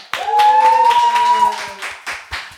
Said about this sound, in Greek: είμαι ενθουσιασμένο ε, γιατί σήμερα παιδιά, έχουμε καλεσμένη τη μικρή Ολλανδέζα. Ένα χειροκρότημα.